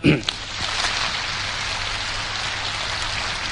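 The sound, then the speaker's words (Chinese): A crowd breaks into applause, a dense, steady wash of many hands clapping that holds at an even, fairly loud level for several seconds, with no voices over it. “所以觉得是有积极有活力，请再掌声告诉我一下。”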